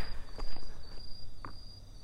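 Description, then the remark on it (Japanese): A steady high-pitched insect trill of bell crickets on an autumn night in 2020, picked up by a lavalier pin microphone, runs through the background, faint and continuous, with a few soft scuffing taps like footsteps. “やっぱ聞き返してみると季節感があるのもすごくいいなと思いましたなんで今このスズムシのね声が残せてるからピンマイクにしたんですよね”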